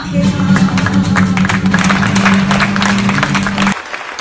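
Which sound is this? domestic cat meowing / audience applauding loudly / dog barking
audience applauding loudly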